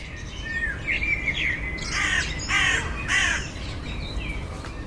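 Crows cawing in a short series of three harsh, loud calls around the middle, preceded by fainter chirping bird calls, over a steady low background noise. No one speaks.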